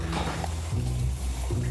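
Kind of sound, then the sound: household object, shower water running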